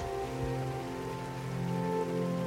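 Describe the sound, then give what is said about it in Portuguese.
Heavy rain pours down steadily in a forest, a dense, even hiss of drops on leaves and ground with no voices, holding at the same moderate loudness throughout. “The last sound I would like to hear before I die is a heavy rain in a forest.”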